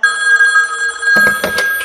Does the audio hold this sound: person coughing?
no